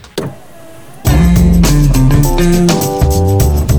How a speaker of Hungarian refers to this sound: Ablaktörlő. Segítünk tisztán látni az autós világban.